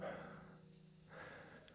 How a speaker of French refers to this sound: J'arrive à Jet, je suis un peu essoufflé, j'ai pédalé vite.